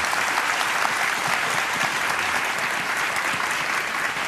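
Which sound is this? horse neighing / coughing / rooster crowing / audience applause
audience applause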